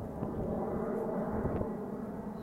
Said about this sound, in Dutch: En uh, ehm, het vliegtuig heel laag overgaat.